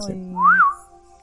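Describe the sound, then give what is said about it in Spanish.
A person whistles one brief, clear note that slides up and back down, heard alone, with no talking. “Dame un silbidito.”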